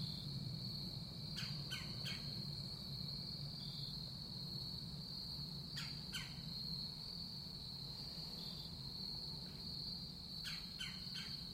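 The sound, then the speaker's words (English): A steady, high drone of crickets fills the woods, with brief bird chirps breaking through every few seconds against a low outdoor rumble, recorded on microphones clipped to a shirt. No one speaks. “crickets and birds, my own footfalls on the, on the crunchy leaves.”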